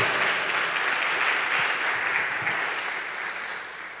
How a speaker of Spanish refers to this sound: ¿Cuántos dicen amén? Dele fuerte ese aplauso al Señor y a su bendita palabra.